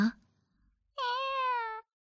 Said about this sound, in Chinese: 好乖呀。那就在一旁安安静静的待着，我摸摸你的头的时候，你就跟我们大家喵一声，好不好？